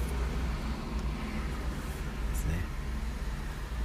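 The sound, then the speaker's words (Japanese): Steady outdoor ambience in the parking lot of a public bathhouse, with a constant low rumble like traffic or an idling vehicle, a faint wash of background noise and no distinct pass-by standing out. “まあ、帰るのにもう間に合わないんであのこのままあの今ですねあの銭湯のの駐車場であの配信をしています”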